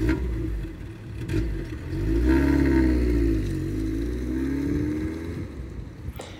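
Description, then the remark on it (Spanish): A late-1970s Renault 12 estate car engine, the car used to tow a caravan, revs steadily, its low rumble rising and falling in pitch with a strained, droning whine; fairly loud, with no voices. “Mis padres siempre habían ido de vacaciones en tiendas y decidieron invertir en nuestra primera caravana tirada por un Renault 12 ranchera.”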